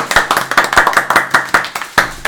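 A small group claps, sharp overlapping hand claps in a quick, uneven rhythm, fairly loud and steady for a couple of seconds with no voices over it.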